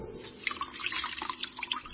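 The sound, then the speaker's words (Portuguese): Water drips and trickles steadily as Gideon wrings dew from a wool fleece, a rapid patter of small droplets splashing, enough to fill a bowl, with no voices present. “espremeu a lã, e dela saiu água, que deu para encher uma tigela.”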